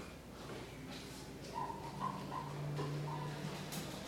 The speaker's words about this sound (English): Is there an actual leak or something? And I heard that dripping noise again. It's the my marker. Squeaky.